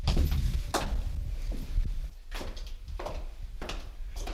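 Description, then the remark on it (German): Several sharp knocks and thuds of footsteps on a hard floor, then the massive door of a prefabricated fallout shelter built into a private house in Munich-Sendling shifting open with scraping and clunking, with a low rumble underneath. “Und hier betreten wir jetzt durch eine massive Türe diesen Fertigteilschutzraum.”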